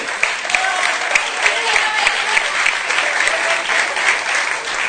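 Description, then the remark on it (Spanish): Sustained audience applause welcoming a performer being introduced, a dense wash of clapping hands holding steady for several seconds, fairly loud, with faint crowd murmur mixed in. “un, fuerte aplauso.”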